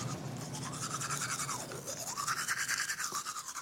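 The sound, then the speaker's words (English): Someone brushes their teeth with a toothbrush: a steady run of quick, rhythmic bristly scrubbing strokes at an even loudness for several seconds, with no talking. “And of course, nano silver toothpaste is largely going down the drain.”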